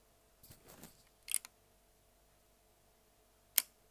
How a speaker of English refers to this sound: and then you close it whenever you want. You hold the, the shutter release open.